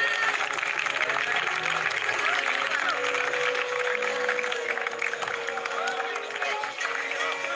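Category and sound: crowd, audience applause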